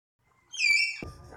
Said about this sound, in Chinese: 对，没错，刚刚听到的不是鸟叫声哦，刚刚听到的是马来貘的叫声。